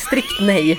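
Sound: cat meowing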